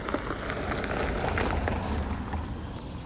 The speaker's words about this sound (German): da fährt ein Auto vorbei.